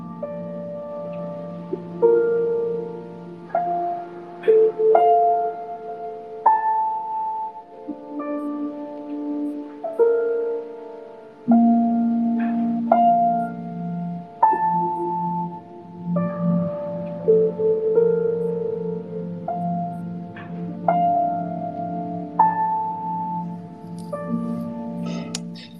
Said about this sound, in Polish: bardzo cicha muzyka, bardzo nieatakująca, taka wyciszająca i jestem absolutnie fanem jego jego y, twórczości. On jest człowiekiem, który jest niezwykle wszechstronny i robi takie właśnie rzeczy, jak słychać w tle.